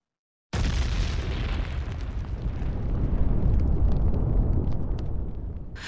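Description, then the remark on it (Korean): After a brief silence, a loud, deep boom bursts in and keeps rolling as a continuous heavy rumble, with small crackling bursts on top and no voices, heard from outside a school. “학교 바깥쪽에서 쿵쿵 하는 굉음이 들렸다.”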